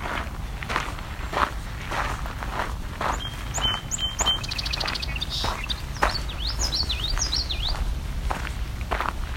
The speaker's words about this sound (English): Yellow Throat, and there was a song sparrow earlier. There's our song sparrow.